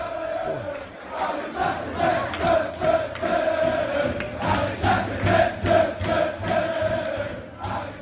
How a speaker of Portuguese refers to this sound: Demorou Hã? dois minutos pra ele cantar uma música do Arsenal no podcast. Tem que ter música. A gente traz aqui os sons das arquibancadas.